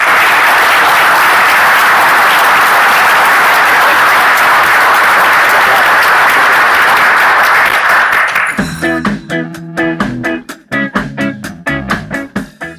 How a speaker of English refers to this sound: If you did, uh, please give our panelists a nice uh, round of applause. Thank you.